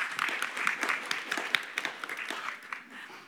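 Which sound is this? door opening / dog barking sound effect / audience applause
audience applause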